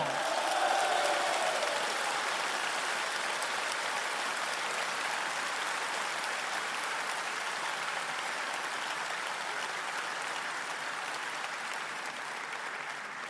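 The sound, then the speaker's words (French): A large crowd applauds steadily for about thirteen seconds, a dense, continuous patter of clapping that stays loud throughout and fades slightly toward the end, with no speech over it; applauding the police during a speech. “Nous, nous voulons dire que nous aimons la police et que nous l'applaudissons.”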